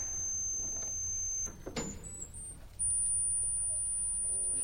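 A very high, thin tone from a tiny organ pipe, among the organ's very highest notes, reached by switching registers, holds steadily, breaks off briefly with a soft knock, then returns even higher and piercing, sustained alone to the end.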